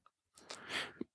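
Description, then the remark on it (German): One sneeze: a quick inhale swells into a loud, hissing burst of breath, then cuts off sharply, with no one talking around it. “Genau, Gesundheit.”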